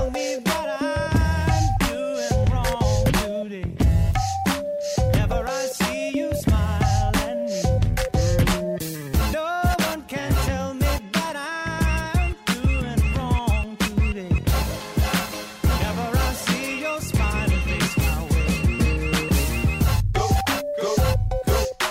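A dense, continuous music track with punchy beats, layered melodic lines and shifting textures, playing loudly and steadily throughout with no talking.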